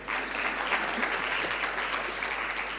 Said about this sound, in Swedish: Ja, det är ni som ska ha applåd, inte jag.